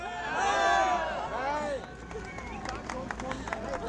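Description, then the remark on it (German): A crowd of many spectators cheers and calls out in a dense swell of overlapping voices, enthusiastically welcoming two men, one a mountaineer back from the Himalaya, coming down a stairway in July 1953, with cameras whirring; then the shouting thins into a lively murmur broken by scattered sharp claps. “Und nun kommen die beiden die Treppe herunter, begeistert empfangen von den vielen Zuschauern.”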